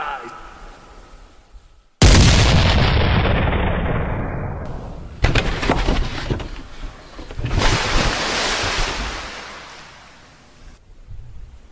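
Heavy ship's cannon fire booms at sea, the cannons aimed at the bridge: one huge blast with a long rolling decay, then a sharper second shot and another roaring burst over a low rumble of waves and ship noise.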